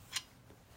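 A single quick lighter strike sparking up a bowl, a short sharp flick-and-scrape of the flint, quiet against a faint hushed background, with no one talking.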